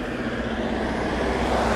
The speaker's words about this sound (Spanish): Callejón estrecho, coches y paso.